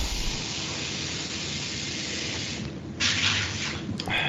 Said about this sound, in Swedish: Spola i vasken. Ja, sådär. Det, så att det inte blev så uh, mycket bakgrundsljud för här.